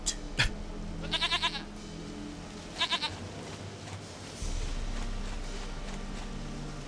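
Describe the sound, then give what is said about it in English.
A goat being petted lets out two short, quavering bleats a couple of seconds apart, clear, over a steady low background rumble with a sharp click near the start. “All right, you can stop petting your goat now.”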